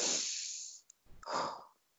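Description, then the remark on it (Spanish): A long, deep breath drawn in with a broad airy rush as a deep-breathing relaxation technique, a brief pause, then a slower, full exhale that fades away. The breathing is clearly audible, with no talking. “Y también usamos técnicas de respiración, técnicas de respiración profunda que van a ayudar, pues en un primer lugar, a relajarnos también, ¿no?”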